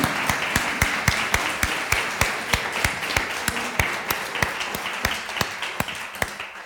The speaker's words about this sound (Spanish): Pobre hermana, yo también voy a aplaudir.